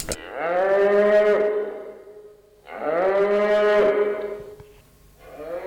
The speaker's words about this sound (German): Das ist also auch eine Kuh, die wegen Hunger ruft. Und Sie hören, es ist ein bisschen anderer Klang, aber ebenfalls sehr energisch und fordernd.